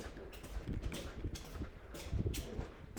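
Steady footsteps walk across a hard floor, each step a close, sharp knock in an even rhythm, with no talking.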